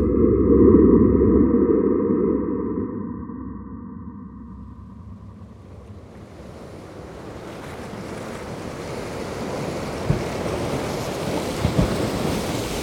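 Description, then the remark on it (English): Surf crashes against a shore in a broad, roaring wash, with a low rumble and wind buffeting the microphone; a few sharper splashes break through near the end. No voices. “We hear fragments of this early Earth today in the spasms of earthquakes and the sounds of wave pummeled seashores, windy mountaintops, rainfall, and lively rivers.”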